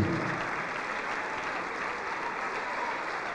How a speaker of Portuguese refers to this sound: Vamos aplaudir muito, igreja, vamos aplaudir bastante.